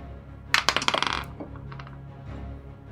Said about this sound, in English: drop his dice.